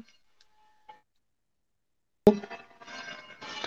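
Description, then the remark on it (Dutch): A church bell next door rings at quarter past four after a near-silent stretch: one loud, sharp strike followed by a dense, sustained clang of overlapping bell tones, with a few faint ticks beforehand. “Ja, het is kwart over vier en dan eh, gaat, de, gaat, de, gaat de kerkklok hiernaast gaat aan.”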